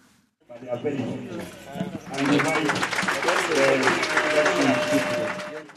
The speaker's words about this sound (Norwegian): Jubel i leiren, applaus. Under en stor presenning sitter publikum beskyttet mot Turkanas hete sol. Det ropes opp navn, diplomer deles ut.